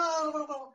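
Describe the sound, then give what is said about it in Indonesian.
A voice briefly imitates a car engine revving, a sustained buzzing hum that drifts slightly downward in pitch and fades out after under a second. “Eh, ini bunyi gas mobil aja itu.”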